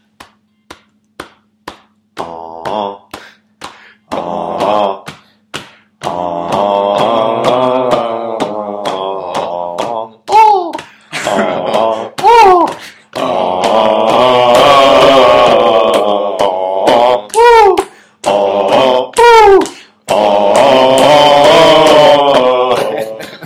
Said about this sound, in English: Okay, so here's our man chant. It's our ritual. It goes like this.